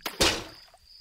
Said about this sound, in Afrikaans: Sy spoel die waslap in die koue water, maar in haar haas om dit terug te vat vir mamma, stamp sy per ongeluk die emmer water om.